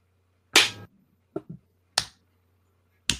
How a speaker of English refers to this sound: Kirk is forced to slap his own face repeatedly.